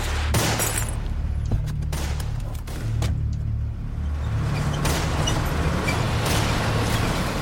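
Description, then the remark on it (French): Repeated sharp gunshots crack out in irregular bursts as prison guards fire on the fugitives' fleeing car during a prison escape, over the steady low rumble of the car engine, loud, with no one speaking. “Plusieurs d'entre eux font feu sur la voiture des fugitifs.”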